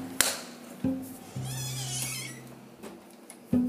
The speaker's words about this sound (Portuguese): A minha porta tem que chutar assim para ela fechar.